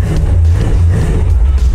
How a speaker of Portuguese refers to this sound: com som de V8 no ouvido. Isso é simplesmente sensacional.